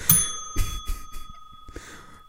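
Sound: small bell ringing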